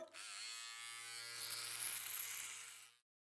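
An electric shaver buzzes steadily for about three seconds as it shaves off beards, its whirring hum growing rougher and louder partway through as it cuts, then switching off abruptly. No voices accompany it.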